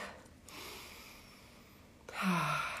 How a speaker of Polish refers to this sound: to oh, weźmy oddech Weźmy sobie głęboki wdech